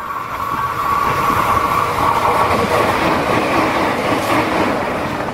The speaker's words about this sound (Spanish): Por primera vez llegaba a Sudamérica un ferrocarril eléctrico para su uso en una faena minera.